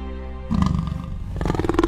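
A tiger roaring: a low rumbling tone erupts after a moment into a loud, rough, throaty roar that pulses and swells until the end. No voices are heard.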